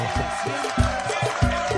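A short burst of applause and cheering from a crowd for a man who worked on the programme: a steady wash of clapping with a few low thumps pulsing through it, holding at an even, moderate loudness for a couple of seconds.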